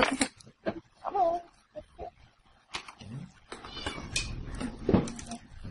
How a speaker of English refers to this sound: I hear cat. That's what I'm hearing. Yeah. Come here. Oops, the blind's closed by me. My cat will be talking shortly.